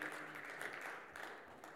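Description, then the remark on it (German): A short burst of applause for the volunteer helpers: dense, steady clapping from a group, hissy and even throughout, with no voices over it. “die wichtigsten Leute sind all unsere ehrenamtlichen Mitarbeiter, ja, die, die so, viel, so viel hier investieren und reingeben, da kriegt ihr von mir als jemand, der angestellt würde, auch mal einen Applaus.”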